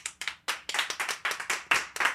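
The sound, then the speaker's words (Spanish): An audience at a stand-up comedy show breaks into applause for comedian Hugo Pérez, many hands clapping in a dense, uneven patter of sharp bright claps that holds steady and fairly loud throughout, with no voices over it. “Un aplauso para Hugo Pérez, el cojo feliz.”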